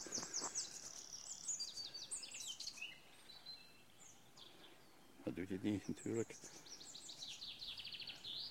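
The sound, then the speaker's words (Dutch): A chaffinch sings two bright, descending trilled phrases, one at the start and one near the end. A man speaks briefly between them. “Want dit is de vink.”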